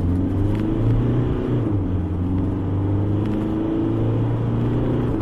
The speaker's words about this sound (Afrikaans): Die X-Rider se 2.5 turbo diesel is grower en meer lawaaierig as sy teenstanders teen luier en laaspoed. Hoewel hy heel beskaafd op die oop pad loop.